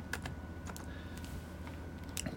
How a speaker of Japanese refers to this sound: キーボードですよ。この、あの、パソコンのね、この音。今僕の、えー、パソコンのキーボードを叩いてるんですけど